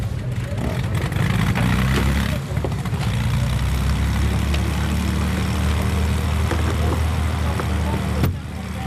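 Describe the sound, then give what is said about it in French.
A propeller airplane engine drones steadily and loudly at Francazal airfield as planes are prepared for departure, a continuous low rumble with a faint mechanical whine, while indistinct voices murmur underneath. “Donc les avions vont être préparés aujourd'hui, donc ça va être des vagues, donc on gère ça par vague parce qu'on est nombreux.”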